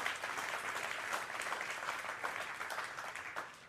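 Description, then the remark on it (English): Steady applause from an audience for the speaker's wife, a dense wash of many hands clapping at a fairly even loudness throughout, with no voices standing out above it. “Y'all give it up for my wife. Don't be clapping for me coming up here.”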